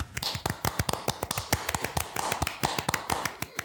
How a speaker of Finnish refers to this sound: Otetaanko? Otetaan tähän aplodit. Otetaan.